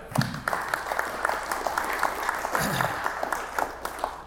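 An audience claps steadily for a few seconds, a dense wash of many hands with a faint voice or two rising briefly underneath, moderately loud.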